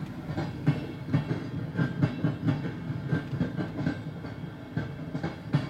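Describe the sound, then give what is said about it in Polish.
A train rolls steadily along the rails, its wheels clacking in a regular rhythm over a dense low rumble, with a slightly hissy, saturated tape-recording texture and no voices. “Ale pociąg jest ekstra. Mogę puścić pociąg?”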